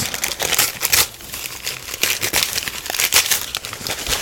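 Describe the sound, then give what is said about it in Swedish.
Paper crinkles and rustles as a package for the homebrew game Christmas Cracker is unwrapped, with dense, irregular bursts of crackling and no voices. “Så vi tar och öppnar paketet.”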